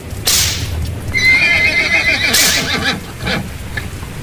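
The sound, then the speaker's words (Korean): A horse of Sisera's chariot troops, its hooves stuck in mud after a heavy downpour flooded the Kishon river, lets out a long, high, wavering neigh, framed by a few loud, heavy hoof clops before and after the whinny. No one speaks. “소용없네 소용없어 말도 진흙 속에 발이 들어가서 움직이지 못하고 바퀴도 움직이질 않네”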